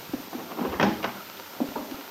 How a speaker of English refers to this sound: Bill answers her knock at the door of his little cabin in the Wakefield Auto Court